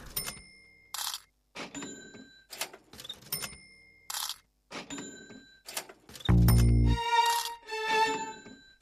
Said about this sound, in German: Und sobald sie da übereinander gestapelt liegen, klingt es an den Kassen in den Geschäften wieder so.